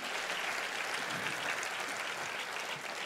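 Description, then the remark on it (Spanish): An audience applauds the Lord during a church service with steady, sustained clapping from many hands, a dense crackling wash of sound that holds an even loudness for about three seconds without easing off. “Así es que la gente que está preparada para que Dios la use en este año, que lo celebre con un fuerte aplauso al Señor.”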